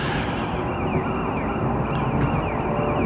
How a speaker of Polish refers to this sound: Zjedź baranie na bok! Głuchy jakiś, czy co? Koguta nie słyszy.